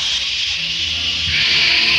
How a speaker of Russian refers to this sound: Внезапно послышался какой-то новый звук, нежный и тихий, словно вырывалась из котла тонкая струйка пара.